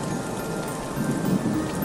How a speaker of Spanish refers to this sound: Pero un día, Mientras miraba por la ventana y en medio de una fuerte lluvia, vi a un extraño que estaba en la calle.